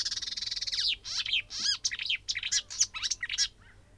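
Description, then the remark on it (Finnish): A marsh warbler sings a lively, varied song with barn swallow calls mixed in, opening with a rapid buzzy trill before breaking into quick high chirps and twittering whistles. No voices. “tuli vähän haarapääskyä siihen mukaan.”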